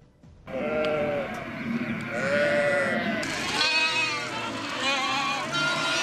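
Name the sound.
sheep and lambs bleating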